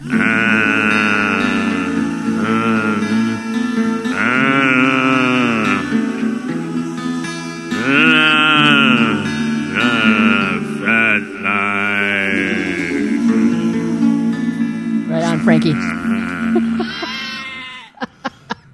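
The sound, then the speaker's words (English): Loud sheep bleating in repeated wavering bursts over a steady low drone, almost continuous, with a brief spoken exclamation near the end. “had to see Frankenstein sheep in there.”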